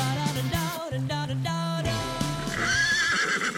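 A horse whinnies loudly, a long quavering neigh that wavers up and down in pitch for several seconds, with no talking over it.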